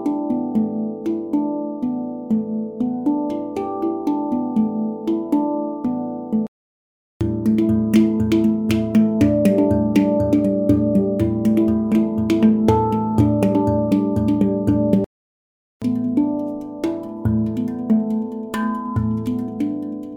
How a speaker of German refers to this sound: Das war ein kleiner Einblick in das Sample Editing bzw. Kreieren einer neuen Sample Library mit Phrasen in vier verschiedenen Tempi.